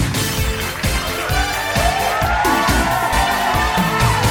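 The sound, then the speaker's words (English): A loud, sustained crowd, the audience of the game show Neptune's Price is Right, cheers and whoops without letup, with rising shouts over a steady pulsing beat throughout. “The crowd are electric, so let's meet our contestants.”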